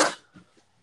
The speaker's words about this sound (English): God bless you again